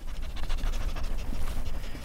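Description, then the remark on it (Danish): A happy-looking dog pants and sniffs outside an office, quick rhythmic breaths mixed with short snuffling bursts over about two seconds, with no voices. “der ser ud til at være en glad hund. Den får også lov at snuse.”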